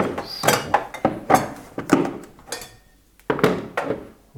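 Dishes and cups being unloaded from a dishwasher: a series of irregular clinks, clatters and sliding knocks of ceramic and racks, moderately loud, with a brief pause before a final burst of clattering.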